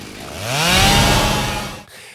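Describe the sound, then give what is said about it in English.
A chainsaw is cranked with one arm and roars to life, its engine pitch sweeping upward as it revs hard and loud, then cuts off abruptly into near silence. “manages to get up off the ground, get the chainsaw up with one arm, and crank it right as the abomination crawls up to her”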